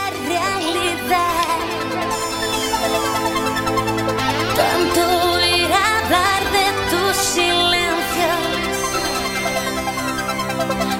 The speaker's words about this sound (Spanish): Si este tema, si este tema no lo contaste en algún momento de tu vida, no puedes escuchar este programa. Te pido por favor que apagues la radio.